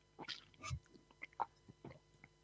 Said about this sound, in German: Pass auf, ich zeig dir mal das normale Strohhalm trinken dagegen. Achtung, pass auf, geht los. Normale Strohhalm trinken.